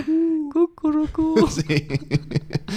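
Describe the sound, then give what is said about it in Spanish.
A person imitates an owl with a few steady vocal hoots in quick succession, then breaks into lively talking and laughter. “Y, entonces, y aún así, mis padres a veces dicen, no, es que anoche no, me dejaron dormir. los búhos.”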